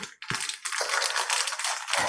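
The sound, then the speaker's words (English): Loud, continuous crinkling of a chocolate chip bag sealed on both ends, bright rustling plastic with sharp crackles and brief low thumps, lasting about two seconds with no voices. “The bag is completely sealed on both ends, and um,”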